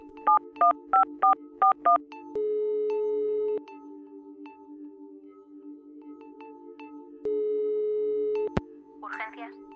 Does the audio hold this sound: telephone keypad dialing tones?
yes